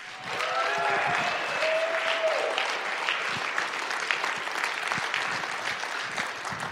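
A crowd claps steadily and enthusiastically for several seconds for a man who has just told his story at a ministry gathering, a dense wash of applause with a few whistles and cheers rising out of it early on.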